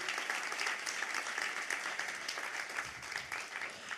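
Steady audience applause, a dense crackle of many hands clapping at an even level for about four seconds, with no voices on top.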